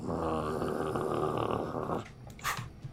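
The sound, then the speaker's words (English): A voice imitates a wolf's growl, a rough, sustained snarl lasting about two seconds, followed by a short breathy huff. “Wolf is just sort of.”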